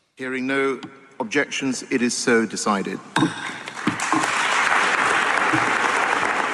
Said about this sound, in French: Applaudissements nettement moins nourris